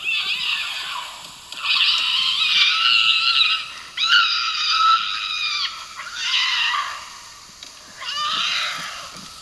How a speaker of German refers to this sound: Es ist auf jeden Fall etwas Schönes und kein Massaker. Soweit kann ich euch schon mal beruhigen. Es handelt sich nämlich um die Laute, die die Luchse im Laufe der Paarung von sich geben